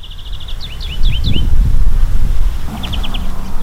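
Bright, repeated bird chirps ring out in quick little runs, pausing and then returning, over a low, steady outdoor rumble, at a rural war cemetery beside a highway in Nīkrāta parish, where passing cars occasionally break the quiet.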